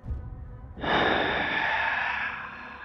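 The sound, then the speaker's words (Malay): A voice imitates a breathy exhale right at the microphone, like someone breathing into the right ear, a single long airy rush of breath following a brief low rumble, loud and intimate with no words. “Lepas tu, aku dengar dan rasa seperti ada orang bernafas di telinga kanan aku macam gini.”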